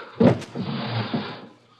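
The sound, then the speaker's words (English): A desk drawer holding a loaded gun is pulled open: a sharp wooden knock, then a scraping slide that trails off into quiet. “I took it out of the drawer and in my hand.”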